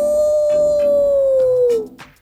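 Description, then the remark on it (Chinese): A single long howl imitating a wolf, loud and steady on one mid-pitched tone that slowly sinks before breaking off, followed by a brief faint trailing sound. “莫卡抬起头，看着金色的月亮，使出浑身的力气，就像狼一样放声嚎叫起来。”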